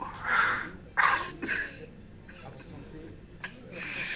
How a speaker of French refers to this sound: Euh, faites-moi le plaisir de surveiller cette vilaine toux. Le tabac finira par vous tuer.